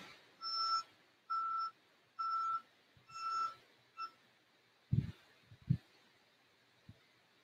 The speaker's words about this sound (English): Oh come on, bro! Get out of here with this loud van.